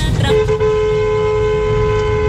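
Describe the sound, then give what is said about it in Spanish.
A car horn blares in one long, steady blast that holds for about two seconds, loud, over a low rumble of traffic. “Que me pita.”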